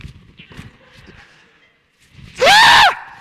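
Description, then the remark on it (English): Someone lets out a short, loud, shrill imitation of a scream, wavering in pitch, mimicking a person screaming and jumping up and down, after a stretch of soft low thumps and rustling. “you know, and they're screaming and making noise and jumping up and down, and you're just like, what in God's name is going on over here with this person?”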